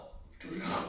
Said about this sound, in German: Na, Gesundheit.